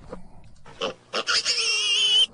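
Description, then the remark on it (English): A person imitates a pig, giving a few short snorting grunts followed by a long, high-pitched squealing oink, loud with no talking. “Sorry, I had to do it because the uh, the conversation about the, the pigs was kind of fun, and I mean, I just thought it was, you know, time to throw a couple out there.”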